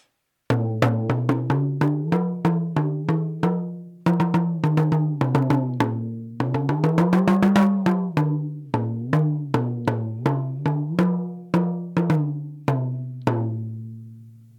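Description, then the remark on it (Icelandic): An African talking drum, held clamped under the player's arm, played alone in quick rhythmic phrases, its low, resonant strikes bending upward and downward in pitch, with a faster rolling flurry in the middle and pauses between phrases. “Talandi tróma. Það er frá Afríku talking drum mm -hmm.”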